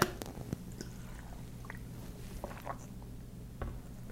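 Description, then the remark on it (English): Someone takes a drink of water: soft sips, swallows and small mouth clicks, quiet and scattered over a steady low hum, with no talking. “Okay, I need a drink of water.”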